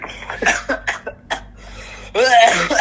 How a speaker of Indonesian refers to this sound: aduh man eh, batuk aja ya